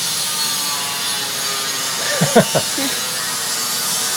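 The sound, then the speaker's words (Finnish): An angle grinder runs steadily throughout, a loud, continuous high-pitched whirring hiss. A brief voice breaks through for a moment partway through. “Rälläkös nyt?”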